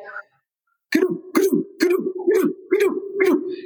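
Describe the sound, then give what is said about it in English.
A voice imitates wildebeest of the Great Migration grunting, making six rough, throaty grunts in a steady rhythm after a brief pause, fairly loud. “and they just grunt the whole time. It's just like this big sound in your ears of them.”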